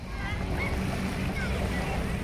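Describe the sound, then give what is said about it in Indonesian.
Footsteps of a person wading through flood water on a flooded street, a continuous churning and sloshing with no distinct separate steps, steady and fairly loud against a windy outdoor background. “Warga hampir tidak ada pilihan selain berjalan menerjang banjir seperti yang saya lakukan.”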